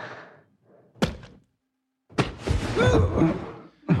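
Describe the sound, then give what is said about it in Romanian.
Heavy body blows land at irregular intervals, three dull thuds of punches striking the ribs, with strained grunts and groans between them. “Dă-i un pic la coaste și pe unde mai știi tu.”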